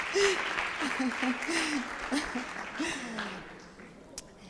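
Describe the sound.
An audience claps in sustained applause for several seconds, a dense crackle of many hands that fades toward the end, with voices calling out and chattering underneath.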